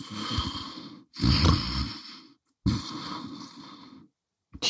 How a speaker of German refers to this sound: Mit einem Mal hört sie ein leises Schnarchen.